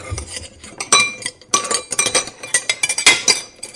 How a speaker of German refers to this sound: Ah, okay, willst du noch ein bisschen klappern am Ende? Küchengeräusche als Outro? Ja, klar, kein Problem. Achtung, es hört sich ungefähr so an.